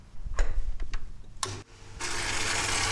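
A jukebox mechanism at work as the turntable spins, the motor selects a record and places it, and an arm swings over to play it: a few sharp mechanical clicks and a heavier clunk, then a steady whirring motor hum with a bright hiss that continues to the end.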